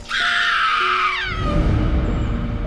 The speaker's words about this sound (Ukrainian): Але дитячий крик страху, болю та відчаю не лякає демона, а лише живить зло.